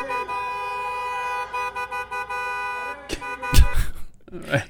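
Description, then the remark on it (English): Several car horns honk in overlapping, steady blasts for a few seconds, followed by a louder burst of noise and a voice near the end. “okay, so it's like a uh, little league baseball game where everybody's in their car honking.”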